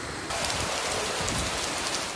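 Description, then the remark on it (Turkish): Heavy rain in Istanbul with a gushing, boiling-over storm drain, during rainfall four times the seasonal norm that raised a red alert: a dense, steady roar of water and pattering drops, loud and unbroken throughout, with no voices. “sarı uyarı mevsim normallerinden 4 kat daha fazla yağışın düşmesiyle kırmızı alarma dönüştü”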